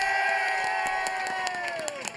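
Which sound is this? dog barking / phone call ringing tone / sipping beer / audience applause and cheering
audience applause and cheering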